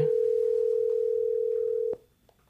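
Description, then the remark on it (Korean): A phone's ringback tone on an outgoing call that goes unanswered: a steady, loud mid-pitched beep that holds for about two seconds, then cuts off with a click, leaving near silence and no voices. “그날 몇 번을 해봤지만 끝내 전화를 받지 않았던 유정 씨.”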